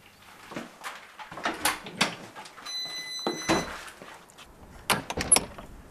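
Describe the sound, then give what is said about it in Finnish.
A factory door is pushed shut with a solid thud, followed by rattling metallic clicks and scrapes as a lock is worked, with no talking. “Ovi kiinni ja lukko, eikö se ollut tärkeää, niin, että joo.”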